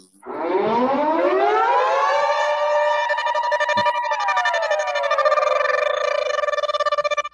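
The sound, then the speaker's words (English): A civil defense siren winds up from a low growl to a loud, steady wail and holds its pitch for several seconds, with a slight waver and no voices. “Radical Jack back with the sound effects.”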